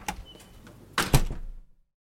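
A door lock clicks softly, then the door is opened with two louder clunks of the latch and handle close by, the rattle fading away into silence. No voices.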